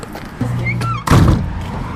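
A single heavy door thuds shut as a woman ushers visitors out, a solid low slam after a moment of faint rustling and movement, with a brief rattle as it settles.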